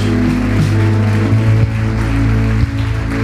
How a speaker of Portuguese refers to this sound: Aplauda o Senhor. Glória a Deus.